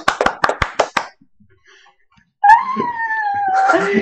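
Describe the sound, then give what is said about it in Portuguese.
About six quick, sharp hand claps ring out in a brisk burst of applause for a lesson, followed by a brief silence and then a drawn-out, wavering dog howl. “Precisamos aplaudir a bela aula”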